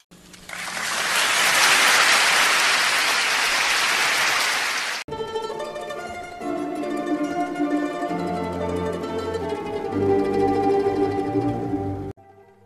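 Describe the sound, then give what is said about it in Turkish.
A dense, steady wash of audience applause at the Oscars award ceremony, following Miss Littlefeather's speech, lasts about five seconds, then cuts abruptly to a stretch of music with sustained tones and a low bass line. “Ve alkışlar.”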